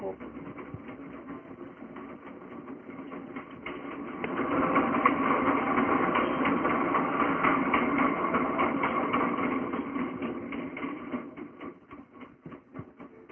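A loud, steady mechanical rumble of an elevated train running above a small house and shaking it, with a rapid clattering texture that swells louder through the middle and then eases off toward the end.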